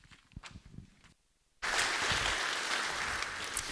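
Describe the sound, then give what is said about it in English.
After a moment of quiet shuffling, a large crowd suddenly bursts into loud, steady applause. The dense clapping fills the room and keeps going without fading. “I know it can feel weird when we clap.”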